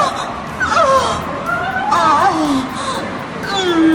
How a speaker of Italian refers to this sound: Qualcuno è entrato illegalmente nel sistema di filodiffusione fatto impiantare dal comune per le strade del centro e ha sostituito le melodie dei canti di Natale con un audio di tutt'altro genere, gemiti e sospiri a luci rosse.